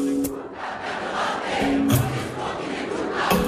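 A concert crowd at the Paris Hip Hop Festival cheers loudly and continuously, a dense wash of shouting voices with a few sharper yells breaking through, sustained at a steady high level throughout.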